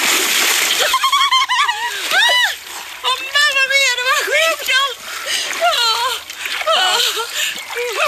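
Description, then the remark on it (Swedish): Continuous splashing of a father swimming front crawl in very cold water churns for several seconds, with high-pitched children's voices calling and shouting over the noise. “Pappa krålar i”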